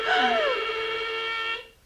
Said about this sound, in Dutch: De bel. Daar zullen ze zijn.